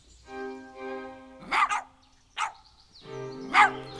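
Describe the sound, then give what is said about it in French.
Small dogs chasing someone yap in a few sharp barks, spaced out over a few seconds, with drawn-out whiny tones between them. “À part ces affreux petits chiens qui me poursuivent en Japon.”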